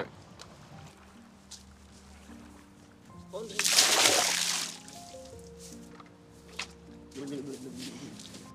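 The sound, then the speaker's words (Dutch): Water that had been standing for a while is poured out of a container to refresh it, a splashy, rushing burst lasting about a second and a half, with low steady hum and faint background voices around it. “Dus je kan even kijken of dat anders is als we, het als we dit even verversen.”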